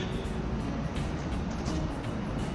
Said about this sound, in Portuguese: É, é tá saindo um carro da garagem lá na frente, não sei se dá para ver, tá vindo aí, ó.